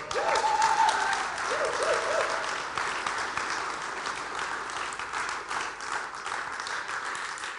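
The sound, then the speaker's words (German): A church audience applauds the Lord loudly and steadily, a dense wash of many hands clapping with a few cheers and whoops rising briefly at the start, then the clapping slowly thins and softens. “Dann gib dem Herrn einmal einen kräftigen Applaus”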